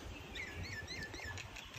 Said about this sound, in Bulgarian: как пее това птиче